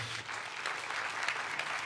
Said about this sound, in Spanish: Ten un fuerte aplauso a Dios.